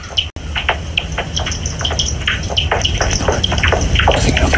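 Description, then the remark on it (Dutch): Bat echolocation calls played through a bat detector: a rapid, irregular stream of dry clicks and pops over a steady background hiss, fairly loud and continuous throughout, with no voices. “dit zijn vleermuizen.”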